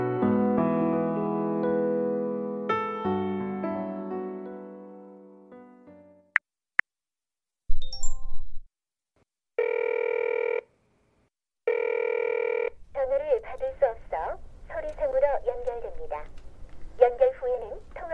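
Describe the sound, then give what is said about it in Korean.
A phone call rings out unanswered: two steady electronic ringback tones with pauses between, then a recorded voice starts speaking. Music fades out just before the ringing begins. “제발 전화 좀 받아. 제발.”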